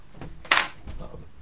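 A single sharp thud of a door being shut, fairly close, with a brief burst of noise and then quiet background murmur.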